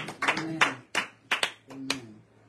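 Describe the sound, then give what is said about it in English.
An audience at a church Bible study applauding briefly: a handful of sharp, irregular hand claps rather than a sustained ovation, with murmured voices mixed in beneath them. “And how many of us, by a round of applause, God made a way out of no way.”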